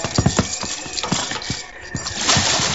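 Hooves of a team of mules crossing freezing water clop unevenly in a loose, plodding rhythm, several heavy steps over a steady rushing noise that swells louder near the end.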